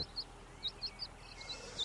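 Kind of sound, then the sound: bird, chick peeping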